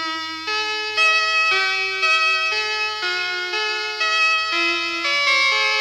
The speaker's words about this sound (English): And of course, you know what bumper music we have to go out with for today's show.